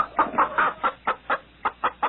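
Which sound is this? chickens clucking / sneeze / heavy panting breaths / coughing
chickens clucking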